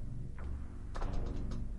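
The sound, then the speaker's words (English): A chair creaks and squeaks in a few short, scratchy bursts over a steady low rumble, with no voices. “Squeaky chair.”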